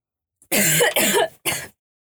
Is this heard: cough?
yes